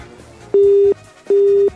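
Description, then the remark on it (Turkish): A telephone busy tone after a call disconnects: two steady, fairly loud beeps of equal length with short gaps between them, heard alone over faint background hum. “Yüzüme mi kapattı?”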